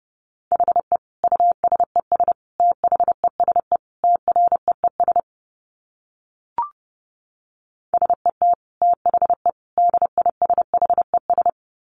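Rapid Morse code at 30 words per minute: a single steady mid-pitched tone keyed in quick dots and dashes, in two bursts separated by a short pause with one brief click.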